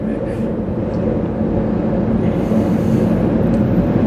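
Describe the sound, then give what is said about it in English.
A blue line commuter train rumbles past, a loud, steady low roar with a grinding, clattering texture that holds its strength for the full few seconds without a break. “That's the, the blue line train again.”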